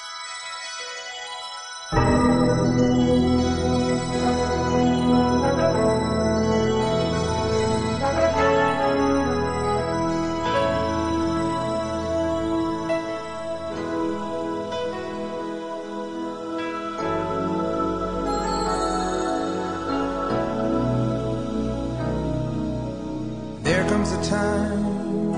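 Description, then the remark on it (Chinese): After about two seconds of silence, a charity pop song recording starts and plays steadily and loudly, with sustained synth-like chords and a full, layered sound that swells briefly near the end. “我们现在来听听这首公益歌曲的鼻祖”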